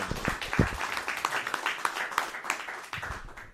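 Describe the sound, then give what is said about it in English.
An audience applauds steadily, a dense wash of overlapping claps at moderate volume that carries on for a few seconds before starting to taper. “I'd like to give her a round of applause.”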